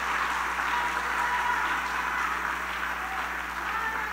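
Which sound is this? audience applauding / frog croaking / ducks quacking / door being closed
audience applauding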